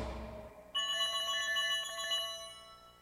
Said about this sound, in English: We never played the fan phone call song. Let's play it now.